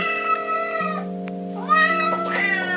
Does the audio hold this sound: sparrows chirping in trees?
no